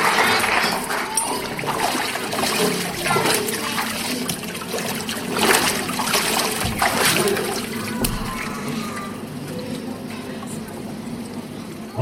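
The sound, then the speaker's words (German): Water splashes and sloshes steadily as a person is immersed during a Christian baptism, with a fuller surge of splashing midway and faint voices murmuring in the background. “so gewiss man das Wasser spürt, so gewiss man da untertauchen, so gewiss hast du dich auch Jesus Christus hergegeben, gehörst ihm.”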